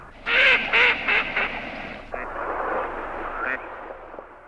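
Ducks quack in a quick run of four or five loud, harsh, nasal calls, then the calling fades into a steady rustling background with a few fainter, scattered quacks.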